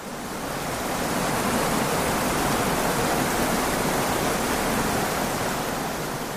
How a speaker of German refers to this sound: Der Regen hat zugenommen. Ich kämpfe wieder mit dem Schirm, habe Schwierigkeiten zusätzlich mit Stock, Handynavigation, Stift und Notizblock zu hantieren. Alles ist bereits feucht.